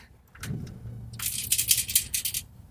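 A broken Unitymedia device being picked up and shaken, loose parts inside rattling in several quick, clattering bursts, fairly loud, with handling noise at the start.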